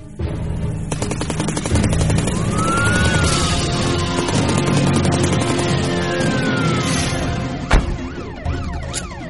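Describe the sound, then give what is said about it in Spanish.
A police car siren wails with rising and falling sweeps as police arrive at a street shootout, over a dense, noisy street scene with rapid sharp bursts of gunfire and a loud crack near the end. “Chale, ya llegó la poli.”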